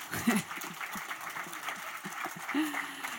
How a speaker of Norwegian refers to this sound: Så da eh, har jeg gleden av å ønske hele panelet velkommen opp på scenen. Jeg kan godt klappe for dem en gang til, altså.